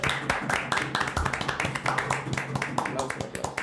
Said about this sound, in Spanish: Y un aplauso para la banda. Hoy tenemos banda en vivo, en set.